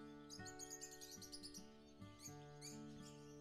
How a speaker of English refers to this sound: Just take a brief moment in there. Just listen to sound of trees, leaves and birds.